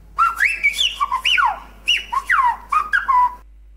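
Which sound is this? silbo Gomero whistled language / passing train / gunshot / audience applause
silbo Gomero whistled language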